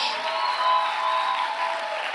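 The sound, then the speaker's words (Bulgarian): A church audience applauds as if in belief that God is perfecting them, a steady, dense wash of clapping that holds at an even level for about two seconds, with faint sustained tones humming underneath. “Ръкопляскай, като че вярваш.”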